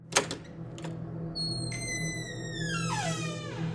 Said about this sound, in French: La porte s'ouvre dans un grincement.